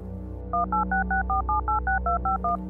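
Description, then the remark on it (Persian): A rapid string of about eleven mobile phone keypad tones, each a short two-pitch beep, pressed in quick, steady succession over a low background hum as a person's number is dialed. “اون لحظه ها هزار بار دعا می کردم که وقتی بهش زنگ میزنم جواب بده با ترس و لرز شمارش رو گرفتم”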